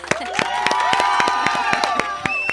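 A crowd claps and cheers at once, rapid sharp hand claps at an irregular rhythm mixed with rising, wavering whoops and shouts, loud and steady for the whole stretch.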